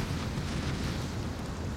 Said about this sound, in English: The chopper is in thick smoke now, so he can't actually see the lava but he can hear it, crashing below like waves on the shore.